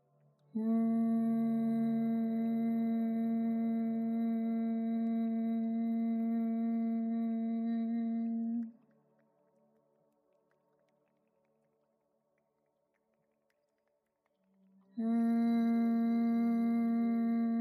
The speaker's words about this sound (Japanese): そのまま鼻で息を吸いもう一度話し声のピッチで声帯を震わせてハミングします耳を塞いだご自分のハミングは蜂が羽ばたく音に似ているかと思います